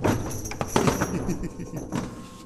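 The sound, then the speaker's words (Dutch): Metallic clicks and rattles of an old door handle being worked, with a few sharp clacks in quick succession, over faint background murmur. “En dan moeten we natuurlijk toch even aan de deur. Laten we dat geluid...”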